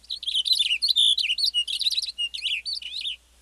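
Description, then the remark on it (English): A Cassin's finch belts out a rapid, continuous warbling song of bright, high chirps and slurred whistles, clear for about three seconds before stopping, with no voices, in an open grassy pine landscape flecked with wildflowers on a warm day. “A western bluebird flits from a gnarly branch as a Cassin's finch belts out a rapid song.”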